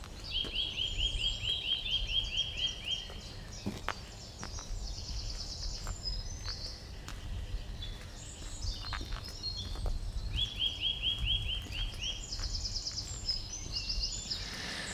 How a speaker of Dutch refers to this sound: Maar nu ben ik hem uit het oog, maar vooral uit het oor verloren. Hè, want de roep van een boomklever is onmiddellijk herkenbaar.